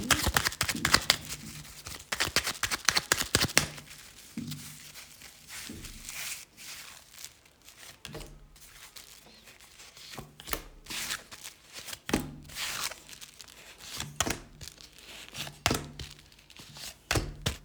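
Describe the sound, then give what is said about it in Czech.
Shuffling of a deck of tarot cards during a tarot reading: a rapid riffling burst at the start, then repeated soft slaps and shuffles at an uneven rhythm, with no one speaking. “Já už se dívám na vaše fotky, míchám u toho karty a my se spolu podíváme, co nám Tarot o vás dvou poví.”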